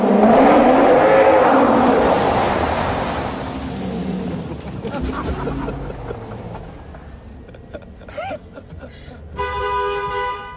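A neighbour's car pulls into a parking spot with a loud, rushing engine rumble that fades, then a few short horn toots sound, ending in a longer steady honk.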